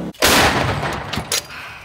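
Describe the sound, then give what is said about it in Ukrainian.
Artillery fire in the Bakhmut area of Ukraine, where artillerymen with the Da Vinci battalion are firing: a loud blast booms and rolls into a long rumbling tail, followed about a second later by two shorter, sharper reports. No voices are heard. “Ми разом із батальйоном е, Давінчі, з їхніми артилеристами на Бахмутчині, де зараз арта не умовкає, тому що ситуація складна.”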